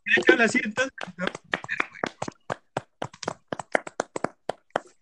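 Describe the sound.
A voice speaks briefly, then applause follows: a steady run of sharp, crisp claps at a quick, slightly uneven pace, sounding like a small group clapping for several seconds.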